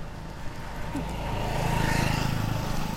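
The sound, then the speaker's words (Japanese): A motorcycle engine swells as it passes on a slope in a residential area, a steady rising drone with a faint higher whine, building toward the end of the short clip over outdoor background noise. “バイクが通ってる”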